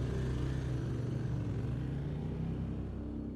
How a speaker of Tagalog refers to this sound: Nang medyo malayo na ako sa kanila, narinig kong umandar na ang makina ng motor ni Lance.